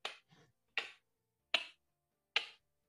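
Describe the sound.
A voice imitates the click of air slipping into a nursing baby's mouth during breastfeeding: four crisp, evenly spaced tongue clicks, fairly loud, with a faint softer click after the first and silence between.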